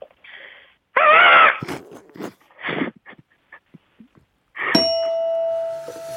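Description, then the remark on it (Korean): A caller, a housewife, does a crow impression on a call-in show: one loud, strained caw, then a few shorter scattered vocal bursts, before a bright sustained chime rings out near the end. “까마귀 한 번 들어보겠습니다.”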